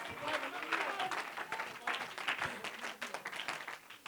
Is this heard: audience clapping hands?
yes